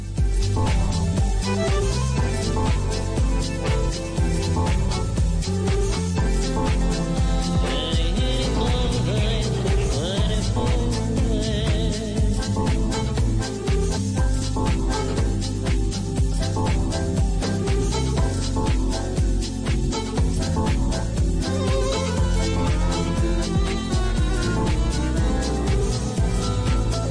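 A full-band song plays steadily and loudly on a radio show, with a deep bass line and a regular rhythmic beat, and no talking over it.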